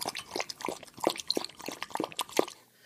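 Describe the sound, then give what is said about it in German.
A dog named Abby, a police dog in training, laps water from a bowl. Quick wet slurping licks repeat in a steady rhythm of about three per second. There are soft splashy drips and no voices. “Oha, Abby hat aber einen großen Durst.”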